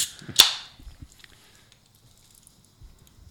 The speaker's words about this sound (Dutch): Nou, ik heb ook wat te drinken meegenomen. Zal het blikje even openmaken?